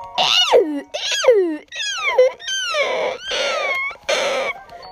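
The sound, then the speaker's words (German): Shrill, squealing cries of Flederbeißer bat creatures in a video game, about six in quick succession with swooping, falling pitch, loud, filling the whole stretch with no one talking. “Oh, Flederbeißer. Oh, wie die klingen.”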